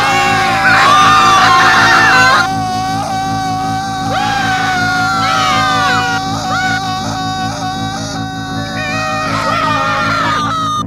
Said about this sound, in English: Suddenly, the tape cut out, revealing static and occasional screams. Officer Mason tried to restore the tape many times now and later, only to come up empty handed once again.